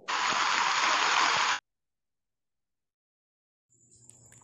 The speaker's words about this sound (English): So uh, we had to cut off the conversation uh, because when it really rains, it's really loud. Uh, given that we don't have a uh, a ceiling, we only have a roof but no ceiling that's protecting us from the noise.